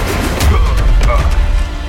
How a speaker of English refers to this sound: Veronica's spinning back kick kicks Kyle so hard he smashes against the wall.